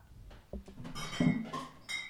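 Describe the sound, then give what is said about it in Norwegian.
Four glass bottles of rusbrus (alcopop) clink and knock together as they are set down on a table, a few sharp chinks with ringing tones over about two seconds. “og det klirrer og Oi, han satte deg på bordet. her. Fire rusbrus.”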